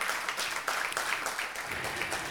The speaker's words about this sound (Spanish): Vamos a dar un fuerte aplauso al Señor, hermanos. Amén.